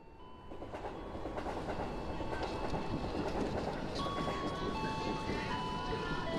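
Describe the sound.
Busy train station ambience as a train rolls through, a loud, steady rumble with rail clatter and thin metallic squealing tones, with indistinct crowd voices murmuring underneath.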